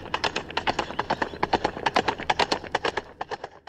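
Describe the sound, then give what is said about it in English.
Hooves of big horses of the Detroit Mounted Police Unit clomp on a cobblestone street in a quick, steady patter of hard, sharp knocks, as if several horses are walking together. No voices accompany the clatter. “You can see it now big horses clomping down cobblestone streets,”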